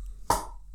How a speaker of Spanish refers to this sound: uy, eso fue una costilla. no sé, suena así.